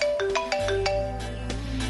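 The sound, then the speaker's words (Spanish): A telephone rings with an incoming listener call to a radio call-in program, its electronic ringtone playing a quick series of bright, melodic notes over a low, steady hum in the background. “Se le tienen más llamaditas.”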